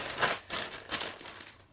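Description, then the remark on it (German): A factory-sealed plastic bag holding the pieces of a 1000-piece jigsaw puzzle is handled, giving a few quick crinkling, rustling bursts with soft rattles in between, fairly quiet and with no one speaking. “Hier ist noch die Tüte original verpackt mit den Puzzleteilen.”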